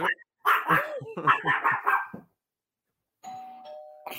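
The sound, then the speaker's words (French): A doorbell, rung by a WeCook delivery, sounds a steady two-tone chime near the end, following a burst of loud, excited dog barking and a short quiet pause. “Tu es aller répondre à la porte? On peut le donner une pause.”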